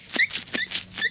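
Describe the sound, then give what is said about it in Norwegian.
Three sharp rubbery squeaks in a quick, uneven rhythm as already well-dyed rubber dishwashing gloves are pulled on for indigo dyeing, fairly loud, with no voices. “Det er lyden av meg som har på meg oppvaskhansker.”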